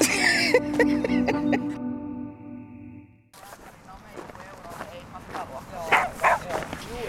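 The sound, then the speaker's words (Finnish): A dog barks and yips several times in quick succession at a dog park in Tonttumäki, Turku, Finland, then the barking gives way to a noisy outdoor scene with people talking and background commotion. “Tämmöinen koira täällä. Täällä on, nyt on muutama.”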